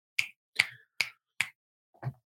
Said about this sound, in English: Oh, you're frozen. Snap your fingers.